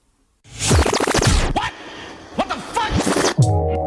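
A short, loud produced jingle of about four seconds, built from scratchy, swooshing bursts and sweeping electronic chirps, ending on a brief held musical chord. No one speaks over it. It introduces the "What the Fuck" section of a radio program.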